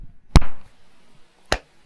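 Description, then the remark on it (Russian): Two people, counting to five, try to clap their hands at the same time: two sharp hand claps, the first louder, the second following just over a second later rather than together, with near silence around them and no talking. “Надо, чтобы мы одновременно хлопнули так, как мы друг друга слышим.”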